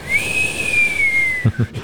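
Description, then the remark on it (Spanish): A person whistles one long, thin note that rises slightly and then slowly falls, imitating the wind, followed by a couple of soft low thumps. “Veo el baño en la lejanía, que es de, de, y una cortina que pende con el, con el viento. Ondea, con el viento y silba.”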